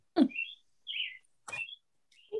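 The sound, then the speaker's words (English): A bird chirps in the background in four quick, high-pitched bursts spaced about half a second apart, clear, with no one talking. “birds want to tell him something. yeah, you hear them in the background.”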